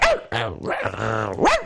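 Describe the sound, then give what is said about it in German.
A person imitates a dog barking for others to guess in a sound-guessing game, giving about four loud, throaty, voiced barks of uneven length, one drawn out into a longer howl-like yelp. “Ja, das ist ein Hund, siehst Ja.”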